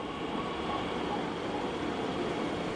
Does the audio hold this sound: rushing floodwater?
no